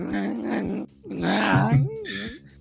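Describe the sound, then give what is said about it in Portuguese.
A voice imitates a screeching, badly bowed violin, like a horror-film violin sound, with strained, wavering squeals whose pitch slides up and down in a few loud bursts with a short pause between them. “Aquele som de filme de terror que também é feito com violino, né, cara?”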